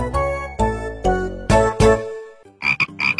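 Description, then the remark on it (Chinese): A short run of bright, ringing musical notes gives way to a quick burst of raspy frog croaks, four or five rapid buzzy calls in a row, the little frog's call before it asks questions in a children's story. No talking. “都不对，因为我每次听故事都能回答对小青蛙提的问题。”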